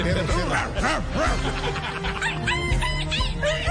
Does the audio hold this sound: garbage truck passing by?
no